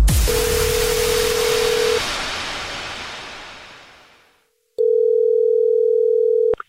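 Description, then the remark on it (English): A steady telephone dial tone of a prank phone call hums briefly over a loud, slowly fading crash, then returns alone after a short silence and cuts off abruptly. No one speaks. “It's another Jubal phone prank.”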